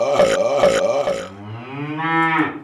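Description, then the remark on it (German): A cow lows: a few short, throaty pulses followed by one long, drawn-out moo that swells in pitch before fading. No talking. “Und das heißt eben auch Kohlendioxid und Lachgas freisetzen und Kühe, die Methan rülpsen.”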